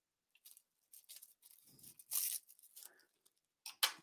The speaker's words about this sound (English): That does tear pretty easily. So tear off a piece of plastic wrap